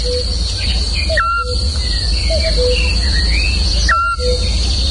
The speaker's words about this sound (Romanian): Mă rog, e și un cuc acolo.